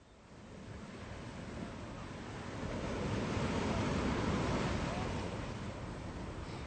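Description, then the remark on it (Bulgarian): Sea waves crash and wash continuously below coastal cliffs and rocks, in a broad, steady roar that swells louder toward the middle, with a hint of wind across the microphone and no voices. “Ich stehe hier auf den Felsen von Rüben und sehe aufs Meer hinaus.”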